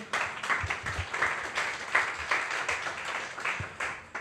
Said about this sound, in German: Kurzer Danke. Applaus.